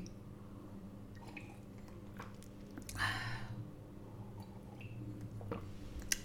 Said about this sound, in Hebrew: שנייה, אני מפסיקה כי אני שותה. מה אני שותה? מים עם הלוברה. תקשיבו ללגימות שלי.